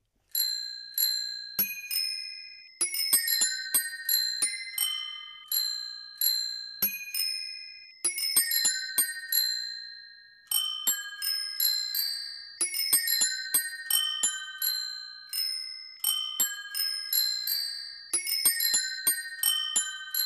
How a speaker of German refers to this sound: Ihr hört jetzt das einzigartige Doremikro Fahrradklingelorchester, dirigiert von Thomas Schäfer, und ihr sollt herausfinden, welches Lied da gespielt wird.